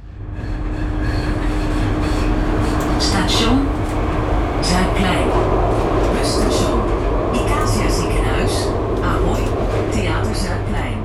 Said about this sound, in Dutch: We zijn net uit de metro gerold. Onderaan de, de trappen aan de Ahoy-zijde staan we op het Zuidplein.